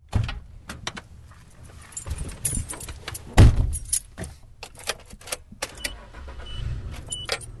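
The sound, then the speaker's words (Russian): A number 363 bus drives from Lesoparkovaya metro station in Moscow to Serpukhov, Russia, its engine running with a steady low rumble beneath frequent rattles, clicks and knocks from the cabin, and one louder thump partway through. No one speaks. “От станции метро Лесопарковая ходим Приходит автобус номер 363. Едет час 15, но смотрите расписание, потому что он ходит довольно редко, примерно раз в час.”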